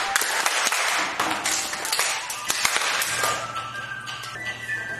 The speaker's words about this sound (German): So, alle stellen sich jetzt im Kreis auf. Es geht los mit den Übungen. Die Hände werden bewegt. Es wird in die Hände geklatscht und auf die Schenkel geklatscht.